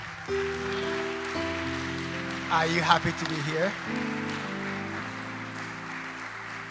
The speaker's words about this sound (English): Oh, let's welcome our pastor. Oh, let's clap for him. He's a good shepherd. wow. Are you clapping?